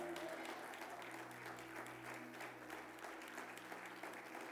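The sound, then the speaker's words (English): A church audience gives the Lord a hand clap of praise after a sermon, a steady, dense wash of applause filling the space for several seconds, loud and sustained with an organ-like hum underneath. “Get the Lord a hand clap of praise.”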